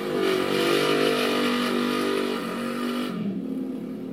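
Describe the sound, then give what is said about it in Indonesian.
A motorcycle roars past, its engine revving loudly and steadily before the pitch drops and the sound eases as it passes away. No one speaks. “aduh motor ini rek suaranya.”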